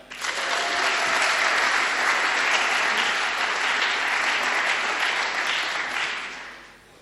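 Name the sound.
audience clapping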